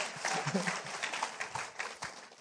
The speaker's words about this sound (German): Ja, wollen, wollen wir ihm einen Applaus geben, dass der so mutig ist? Danke.